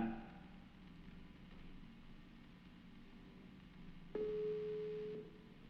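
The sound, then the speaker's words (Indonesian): A single ringback tone from an outgoing phone call, one steady beep lasting about a second near the end, over a low background hiss with no talking. “Coba langsung kita telepon ya.”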